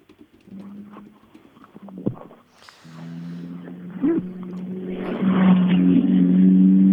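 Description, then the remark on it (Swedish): Almevik's rally car in the otrimmat 2 class drones and growls as it arrives at the finish, its low steady tone shifting in pitch as it builds steadily louder toward the end, with a few sharp knocks early on and no voices. “Ja, nu har vi två bilar i mål i otrimmat 2 också, för nu kom Almevik.”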